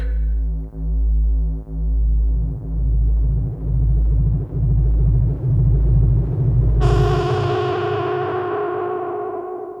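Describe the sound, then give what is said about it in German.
A deep, throbbing electronic hum pulses steadily for several seconds, then a sudden loud, bright lightning strike crackles in and rings out with a slowly fading, buzzing decay. No voices. “Ein Blitzschlag.”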